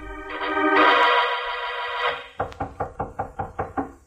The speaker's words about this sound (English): A few minutes after we returned to Mallard's office from putting Finch into his ungilded cage, there was a knock on Mallard's door.